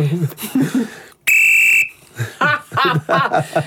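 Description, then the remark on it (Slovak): A referee's whistle gives one short, piercing blast for offside, loud, about half a second long, with people talking and laughing before and after it. “Skús mi offside odpískať.”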